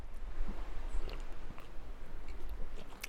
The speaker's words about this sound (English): gonna have one more sip and then I'll let you know.